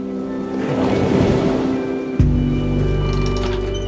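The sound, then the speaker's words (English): Water sloshes and surges against a wooden ship's hull in a steady wash, with a sudden heavier slap midway and a low rumble of wind and sea underneath. No one speaks. “You can hear the waves as they slosh against the wooden body of the ship.”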